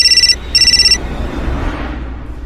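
A mobile phone ringtone for an incoming call trills in two quick bursts of rapid, bright electronic pulses inside a car that has just stalled, then cuts off, leaving a low rumbling background with no voices.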